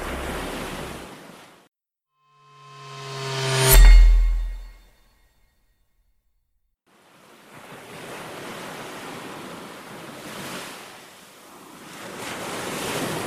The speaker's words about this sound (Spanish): El ruido de las olas rompiendo las rocas, las gaviotas revoloteando en el cielo azul y el tráfico de la ciudad de San Francisco, a tan solo un kilómetro y medio de Alcatraz, podían ser una tortura peor que la cárcel misma.